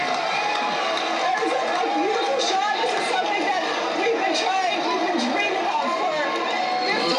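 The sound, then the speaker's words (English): A large crowd at a SpaceX launch roars with sustained excitement, a dense wall of cheering, shouting and chatter that stays loud and steady throughout, with occasional higher whoops rising above the din. “These people are legitimately going nuts. When have you heard excitement like this?”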